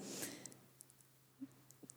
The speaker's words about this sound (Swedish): Oj, det bläddras av sig självt här i min bibel.